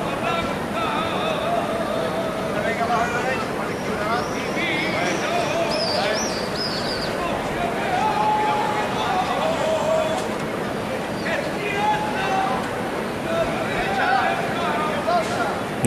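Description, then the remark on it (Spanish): A flamenco saeta to the Soledad de San Lorenzo sung far off at the end of Holy Saturday in Holy Week, its long wavering vocal notes faint beneath a steady crowd murmur, with shrill calls of swifts darting overhead. “sé si le llegan con nitidez la letra de esta saeta”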